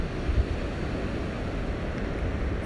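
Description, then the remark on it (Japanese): A steady, broad wash of ocean surf breaking on the shore rolls continuously, with a low rumbling roar and no clear individual wave crashes, fairly loud with no voices. “はい今回もね波の音にね波の動きにね合わせて、えー、breathe in breathe out してみました”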